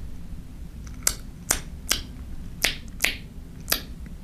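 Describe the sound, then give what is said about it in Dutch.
A large plastic object being handled, producing six sharp, crisp clicks at roughly half-second intervals, fairly loud against a quiet background, with no voices. “Dus we hebben dezelfde materialen, plastic, maar eentje is groot en eentje is klein.”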